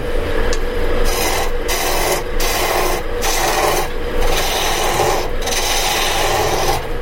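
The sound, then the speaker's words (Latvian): A chisel cuts wood on a lathe, leaving an almost smooth surface, making a loud, steady rasping hiss that runs without a break, with brief regular dips in the sharper upper tones. No one speaks. “Kalts izdara griešanas darbību, kā rezultātā ir gandrīz vai gluda virsma, kurai tikai atliek smalko smilšu papīru parādīt un Tā arī izveido brīnišķīgas lietas.”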